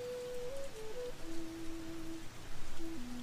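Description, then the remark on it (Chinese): Steady, dense rain hisses evenly throughout, a soft continuous wash with no pauses, while a faint, low melodic tone drifts slowly underneath. “此刻的你，安静地听着绵密的雨声”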